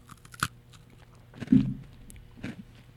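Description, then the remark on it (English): Crunchy chewing of a biscuit made with roasted peanuts and icing sugar: three distinct, spaced crunches, each with a sharp crackly attack, over a quiet background with no talking. “I'm sure the listeners can hear crunch, crunch, crunch.”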